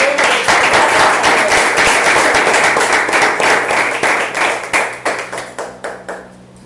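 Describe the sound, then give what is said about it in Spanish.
An audience applauds a presenter of a project with loud, dense, rapid clapping that holds steady, then thins out toward the end into a few separate, slowing claps before fading. “sin más preámbulos y para aprovechar todo, todo el tiempo y todo el conocimiento, por favor me dedican un fuerte aplauso a nuestro gran”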